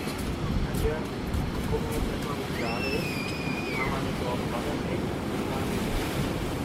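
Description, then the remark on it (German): Steady roar of surf and wind at a beach promenade fills the scene without a break, with a faint whistle-like tone drifting briefly in the middle and muffled voices low in the background. “Sie schlurfen die Promenade entlang zu den Läden und Cafés am Ende des Strands.”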